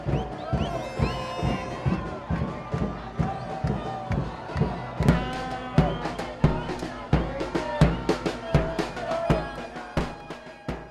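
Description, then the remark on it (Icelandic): A cheering crowd of Buenos Aires residents fills the scene with overlapping shouts and voices, punctuated by sharp, irregular bangs or claps that recur steadily throughout, loud and festive. “Þarna heyrum við í kampa kátum íbúum Buenos Aires”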